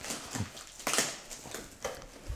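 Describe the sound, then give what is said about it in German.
Plastic gummy bear packaging rustles and crinkles in a few uneven bursts, quiet, with one sharper crackle near the middle and no voices. “So, das ist jetzt ganz schön für die, für die Hörer, die hören es nur hm. rascheln und denken sich, was ist denn da los?”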